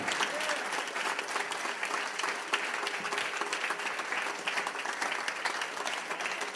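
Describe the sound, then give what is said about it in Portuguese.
Sustained applause from a crowd, given to God, a dense, steady wash of many hands clapping at even loudness for several seconds, with faint voices mixed in underneath. “Então vamos dar uma salva de palmas bem forte a Deus, porque Ele merece também.”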